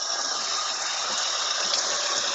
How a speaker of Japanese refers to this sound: さあ、今日も、えー、今から食器を洗いに行きます。